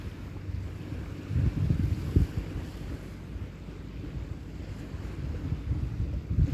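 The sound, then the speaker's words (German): A steady, gentle wind blows lightly by the sea on a beach at a firth, with the sea rushing, a low continuous rumble with faint gusts swelling and easing. No voices, just open outdoor coastal ambience. “Der Wind streicht ganz leicht über mich hinweg”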